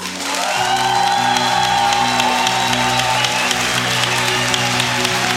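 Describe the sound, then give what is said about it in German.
A loud church crowd in Leipzig bursts into sustained applause and cheering for Dresden, celebrating five years of Seal Church Dresden, steady clapping with whoops and shouts rising over it, continuing at full level for several seconds after a brief quiet start. “Wir machen jetzt einen richtig, richtig fetten Applaus für Dresden, okay?”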